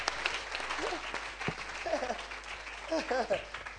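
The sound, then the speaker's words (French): A crowd claps continuously and energetically while individual voices shout and cheer over the applause, the whoops rising in bursts toward the middle and end, cheering loudly for Jesus at the preacher's call. “Est-ce que tu peux acclamer très fort pour votre Jésus qui peut dire Je suis la lumière”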